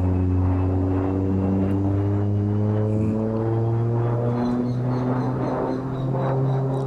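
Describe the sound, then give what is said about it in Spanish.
A steady, loud propeller aircraft engine drones, its strong harmonic hum holding constant with slight pitch shifts, as planes take off and land. No one speaks. “Sientan los aviones, sientan los aviones que salen, que vuelven.”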